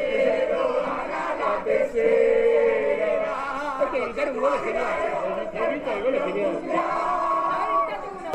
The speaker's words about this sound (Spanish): Así millones de argentinos salieron a las calles a festejar el tercer campeonato del mundo de fútbol que esperaban desde hacía 36 años.